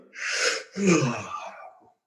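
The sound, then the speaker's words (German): A long yawn: a breathy drawn-in breath followed by a voiced, sighing exhale that slides downward in pitch and fades out, with no talking. “Und das kann man auch mit dem Gähnen kombinieren.”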